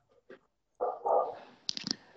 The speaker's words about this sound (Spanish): No, mi perro, está que le gusta ladrar a esta hora. Está detectando algún chuzado.